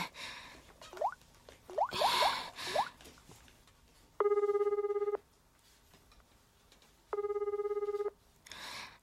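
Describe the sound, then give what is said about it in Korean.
A phone call to a mother rings twice with steady electronic trilling bursts, each about a second long and separated by a pause, after some short rising chirps and noisy rustling; no one answers. “이젠 아예 전화도 안 받으시겠다.”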